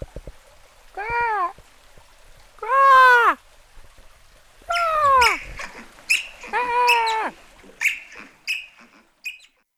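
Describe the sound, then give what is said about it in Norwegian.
A person imitates an otter's call to try to lure out an otter that has not yet appeared, with a series of high, squeaky, whining cries, several drawn-out wails followed by shorter chirps and squeaks, fairly loud with no talking. “Jeg skal prøve å kalle på oteren.”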